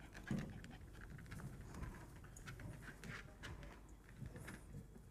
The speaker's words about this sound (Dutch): De hond is vol aan onze eh, decor aan het ruiken nu. Ja, je zit wel ergens goed langs de rand. Ja, hij, gaat zelfs bovenop ergens ruiken.